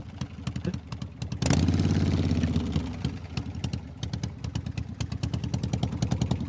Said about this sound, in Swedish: has requested the totally awesome 12 hours of a Harley Davidson sound effect. Fatta, 12 timmar Harley Davidson ljud.